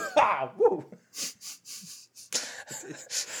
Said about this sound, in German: Ah, sorry, ich muss, ich muss gerade niesen, sorry.